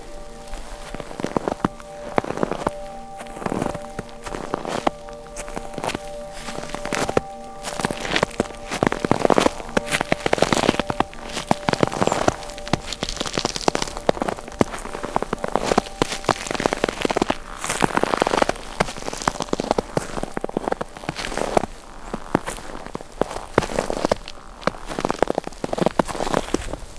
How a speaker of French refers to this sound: Les pas sur la poudreuse qui chassent l'air, produisant ce bruit cartonné.